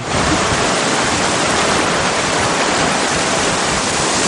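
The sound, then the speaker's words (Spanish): A strong river current rushes over large rocks beside a riverbank with a grove of trees, in a loud, unbroken roar, a dense steady hiss of churning water that never pauses, with no voices. “Camina sorteando grandes rocas próximas a la fuerte corriente.”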